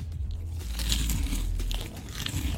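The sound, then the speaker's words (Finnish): A crisp, crunchy bite into a deep-fried croissant, followed by loud crackly chewing with repeated crunches over a couple of seconds; no talking. “Otetaanko croissant? Croissantti ensin. Ja kaikki nämä on siis käynyt frittikeittimen kautta.”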